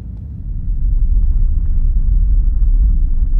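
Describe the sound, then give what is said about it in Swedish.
A deep, heavy rumble of rocks crashing down inside a mountain in a rockfall, making the ground vibrate, swells in over the first half second, then holds steady and loud, a continuous low roar with no voices. “Och som om berget ville bekräfta min rädsla avbröts mina tankar av ett svagt muller. Det började vibrera i marken. Jag kunde höra stenar som brakade ner i marken bakom oss.”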